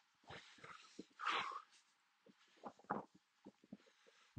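A small dog snorts and snuffles, with a run of short, irregular wheezy breaths and one louder snort partway through. No one speaks.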